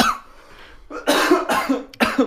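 coughing

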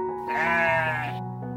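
sheep bleating

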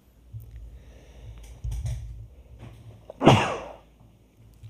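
sneeze

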